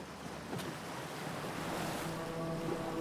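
Steady surf washes onto a sandy beach, a continuous broad rush of breaking water with a faint low hum underneath, fairly loud, with no voices.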